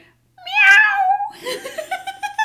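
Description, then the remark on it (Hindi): A person's voice imitates a cat, giving one drawn-out, wavering meow, followed by a few shorter, choppy voiced sounds that trail off. “ऊपर बाहर बिल्ली जो कुत्ते के कॉस्ट्यूम में थी उसने सोचा हम्म, लगता है ये इतना नहीं डरा मुझे अब कुत्ते की आवाज़ करनी चाहिए तो जैसे ही उसने कुत्ते की आवाज़ करने के लिए मुंह खोला उसकी आवाज़ आई”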